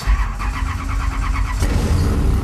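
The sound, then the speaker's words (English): The heavily modified engine of the Hoonicorn roars. The car is a 1965 Ford Mustang putting out more than 800 horsepower, driven by Block in Gymkhana 7. Its deep rumble holds steady before surging sharply as it revs harder, loud and continuous, with no one speaking. “In Gymkhana 7, Block was behind the wheel of a 1965 Ford Mustang, putting out more than 800 horsepower, modified beyond recognition, and dubbed the Hoonicorn.”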